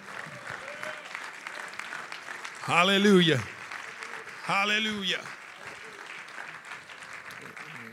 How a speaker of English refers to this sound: Can y'all say praise the Lord? Let me give a hand clap of praise to the Lord.